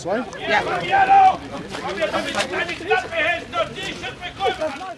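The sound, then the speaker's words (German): Loud, dense crowd hubbub at an open-air market, vendors and many overlapping voices shouting and chattering at once, steady with no pauses. “Überhaupt ist es meistens richtig laut hier auf dem Markt um mich herum.”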